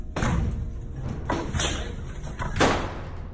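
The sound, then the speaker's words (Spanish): Seminarians batter down the door of a room with several heavy, booming impacts at uneven intervals, each blow thudding loudly, with the final strike hardest; no voices are heard. “Preocupados, los otros seminaristas decidieron romper la puerta de la habitación de Luciano.”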